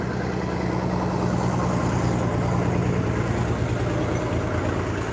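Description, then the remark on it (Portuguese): A heavy truck passing by rumbles loudly and steadily, a deep droning roar with low throbbing tones that holds at an even level throughout, with no voices. “Tá passando um caminhão, vai fazer um barulhão é retado aqui.”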